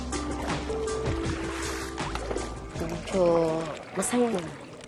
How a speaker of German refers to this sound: Willkommen in Malabon, Manila wo sich durch eine Verkettung unglücklicher philippinischer Umstände der Abfluss verschluckte und sich das feuchte Nass entschloss zu bleiben. Gut zehn Jahre ist das her. Seitdem wird hier gepaddelt.